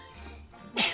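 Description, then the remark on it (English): A single sharp sneeze bursts out loudly near the end, after a moment of quiet low background hum. “Bless you.”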